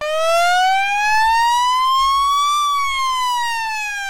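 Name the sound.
ambulance siren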